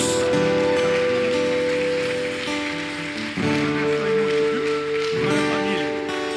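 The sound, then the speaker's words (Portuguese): An audience with a pastor claps steadily for Jesus for several seconds, a loud, dense crackle of applause layered over sustained keyboard chords that shift a couple of times. “Vamos dar mais um aplauso a Jesus.”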